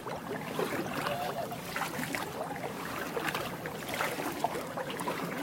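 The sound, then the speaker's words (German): Steady water sounds of a small wooden kayak being paddled along a river below Clark Canyon Dam, with soft splashing and dripping over a constant rushing wash. No one speaks. “Hinterm Clark Canyon Damm steige ich dann endlich ins Boot.”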